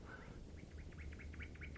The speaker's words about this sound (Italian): Chi canta così bene? Sono io, l'usignolo vero. Sono venuto a cantare per voi che siete ammalato.